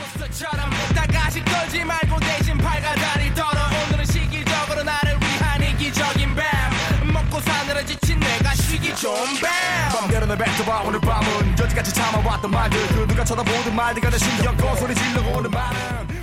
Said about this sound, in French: nous allons faire une première pause musicale avec un morceau fort à propos.